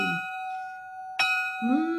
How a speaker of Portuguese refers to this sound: toca o sino, toca o sino, toca o sino, toca o sino, toca o sino.